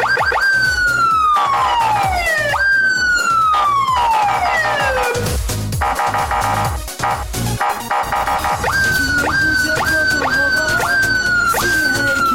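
A siren sound effect is played on a traffic broadcast at drivers using the emergency lane without need: a loud siren wails in long falling sweeps, then switches to a rapid, repeating yelp pattern, with a low engine-like rumble underneath and no voices.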